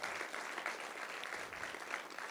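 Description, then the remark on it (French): An audience in a cinema claps steadily to greet people following by video, a dense continuous patter of many hands at an even loudness, with no voices rising above it. “On peut, on peut les applaudir, yes, qui nous suivent.”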